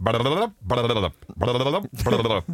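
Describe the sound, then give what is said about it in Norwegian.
A voice imitates an empty bottle rolling around under a seat, making four loud, drawn-out, wavering vocal sounds in a steady rhythm with short gaps between them. “Det er tomflaske som ligger under setet.”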